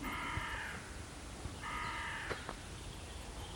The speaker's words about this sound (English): and there's a crow.